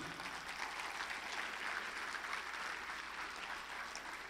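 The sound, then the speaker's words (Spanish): A church audience claps steadily for Jesus during a sermon for several seconds, a dense, even wash of many hands with no voices on top, holding at a constant level throughout. “El que lo crea, déle un aplauso a Jesús.”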